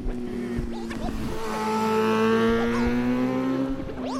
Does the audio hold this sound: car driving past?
yes